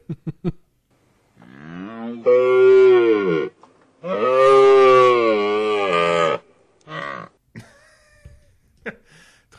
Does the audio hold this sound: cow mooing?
yes